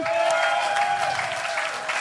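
Steady audience applause for a volunteer coming up to the front, a dense wash of many hands clapping at an even loudness for about two seconds, with a faint sustained tone running underneath.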